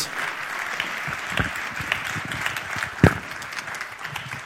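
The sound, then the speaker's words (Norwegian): A Pentecostal church audience applauds steadily throughout to welcome a speaker to the stage, a dense, sustained wash of many hands clapping at moderate volume, with a few sharper, louder claps standing out near the end. “Vi gir Truls en skikkelig pinsekirken applaus.”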